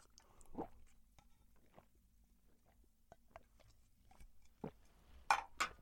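Someone gulps down a drink after a toast, with soft, wet gulping and swallowing sounds spaced irregularly, ending in a couple of louder gulps.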